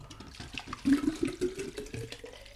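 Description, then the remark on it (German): Water is poured into a drinking bottle in a splashy stream for a couple of seconds, gurgling and sloshing unevenly, spilling onto the person pouring, with no voices. “Ich versuche gerade Wasser in meine Airflasche zu kippen.”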